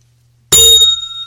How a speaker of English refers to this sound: We've got a bell. We got a bell.